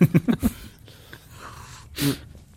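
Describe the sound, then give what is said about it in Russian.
A few quick, breathy vocal bursts give way to a single sharp sneeze about two seconds in, with quiet room noise around it and no talking. “чихать, Да, тормози, так ты так делай.”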